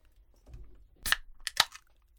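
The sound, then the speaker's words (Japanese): A beer can pops open during a radio show recording: a sharp metallic crack and a bright fizzing hiss, followed by a second quick burst of hiss, with faint handling noise before it and no talking. “このプシュの、S、ASMR”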